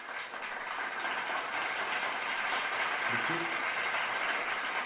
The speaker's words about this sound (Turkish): Kendilerine bu duyarlı davranışı için kocaman bir alkış diyoruz.